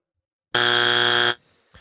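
A single loud, harsh electronic buzzer blares steadily for under a second, then cuts off abruptly, leaving brief quiet with a faint rustle at the end.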